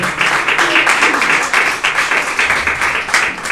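A church audience claps their hands together as an offering of applause to the Lord, a dense, steady wash of applause, loud and continuous with no voices standing out.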